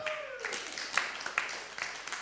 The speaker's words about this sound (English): Who did that? Everybody give him a clap.